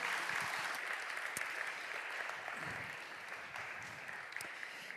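An audience applauds a team steadily, a dense wash of clapping that holds at a fairly even level for several seconds and eases slightly toward the end.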